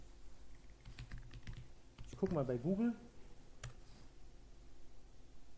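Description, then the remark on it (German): Scattered taps on a computer keyboard click, a quick cluster of keystrokes followed by a few isolated presses, with a man speaking briefly in the middle over a low hum. “Ich hoffe, ich habe es richtig getippt.”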